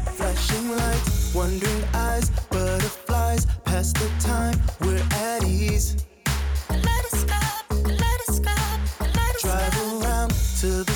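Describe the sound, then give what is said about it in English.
Loud, full-band music plays continuously with a steady driving beat, strong bass and layered instruments, with brief dropouts along the way and no talking over it. “Hey, could you maybe turn on some music or something?”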